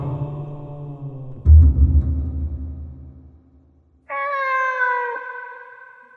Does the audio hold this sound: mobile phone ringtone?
no